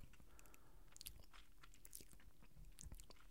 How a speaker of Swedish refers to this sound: Att man ska testa att svälja mer än fyra gånger i rad. Alltså. Försök utan, göra det. Utan att ta liksom... Nej men bara tvinga dig själv att svälja fyra gånger. På raken.